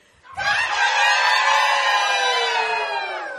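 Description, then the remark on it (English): On a count of three, a crowd of people loudly gives its best imitation of a rooster's crow all at once, a sustained chorus of voices rising together and holding for about three seconds before tapering slightly. “You're good roosters.”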